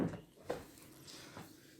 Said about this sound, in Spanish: A lo mejor y te tienes que pegar un poquito más el micro. Hazte uno más. Jala un poco la silla para acá.